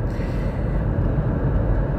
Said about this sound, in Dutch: En dat is wel even een stukje rijden, dat is ruim 20 minuten. Dus ik dacht, laat ik eens proberen of dat ook in de auto wil. En dus waarschijnlijk hoor je dat ik in de auto zit.